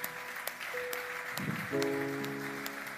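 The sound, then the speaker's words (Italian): A church audience applauds to welcome first-time visitors, a steady, dense patter of clapping, while sustained keyboard tones enter partway through and hold beneath the clapping until the end. “Facciamo un applauso, tante benedizioni.”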